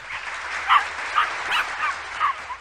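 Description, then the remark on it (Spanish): A dog named Leo, a trained dog whose owner just won the World Training Championship, gives a quick series of short, high barks and yips, about four or five in a row, with no one talking over them. “Hoy estoy tan contento porque te traigo a mi primer perro”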